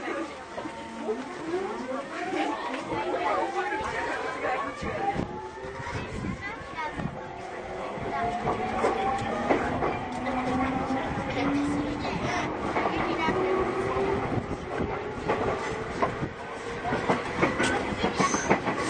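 A JR 209 series electric commuter train running between Akihabara and Shinjuku, with rising motor whine tones sweeping upward as it accelerates, over a continuous rumble and rhythmic rail clatter.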